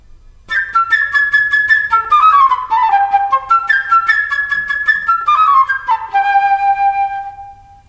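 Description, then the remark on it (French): A light, chirping flute plays the bird, Peter's friend, in Peter and the Wolf: a quick, high birdlike melody with rapid staccato repeated notes and fluttering runs that rise and fall, steady in loudness and alone without any voices. “L'oiseau, ami de Pierre, ce sera la flûte légère et gazouillante.”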